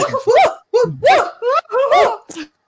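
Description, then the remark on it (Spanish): Several people imitate dogs barking together, a rapid burst of loud, overlapping woofs and yips, with a few short pauses between volleys. “No, lo que podemos hacer es ladrar todo el mundo. ¿Podemos ladrar todos?”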